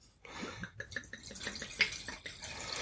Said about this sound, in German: Glas ausspülen ist vielleicht irgendwie angebracht. So ja, das mache ich ja, das mache ich immer, indem ich eh Stützwasser da reinschütte